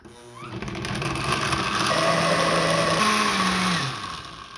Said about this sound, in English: I love cilantro, and cilantro is what makes salsa verde salsa verde, in my opinion. So I'm going to use the blender now.